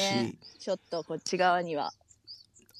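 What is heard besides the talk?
birds chirping outdoors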